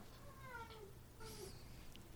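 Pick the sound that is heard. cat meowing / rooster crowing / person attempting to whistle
cat meowing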